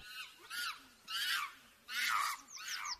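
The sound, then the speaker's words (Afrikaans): A yellow toy machine lets out shrill monkey-like screeches and chatters in about four quick bursts, not loud, with no talking. “Apies?”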